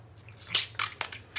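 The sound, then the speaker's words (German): A voice imitates the clicking sound of the Predator from the film with a few wet, crackly mouth clicks and rattles, four or five short bursts in an uneven rhythm, with no speech. “der Typ ist oh, verantwortlich für das Predator-Klickern.”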